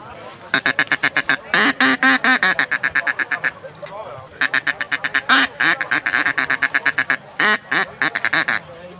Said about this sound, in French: Euh, ça, c'est le canard colvert. C'est la femelle qui appelle le, mâle pour, pour, que le mâle la rejoigne là où elle se trouve sur le plan d'eau.